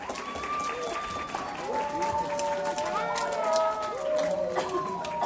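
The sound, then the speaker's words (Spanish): An audience applauds steadily for several seconds for the director of the Orquesta Infanto Juvenil de la Florida, a youth orchestra, a dense wash of clapping with voices calling and chattering through it, sustained at a fairly even level throughout. “Un aplauso igual para él.”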